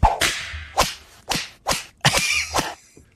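A rapid series of six or seven loud, sharp whip cracks, irregularly spaced, each snapping hard and fading quickly, with no voices.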